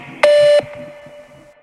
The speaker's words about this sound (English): Please state your name after the tone, and Google Voice will try to connect you.